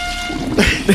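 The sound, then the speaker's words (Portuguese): A toilet being flushed twice to get a large stool down, a rush of water that swells louder in two quick surges near the end of the brief moment, fairly loud. “É descarga mesmo pro.”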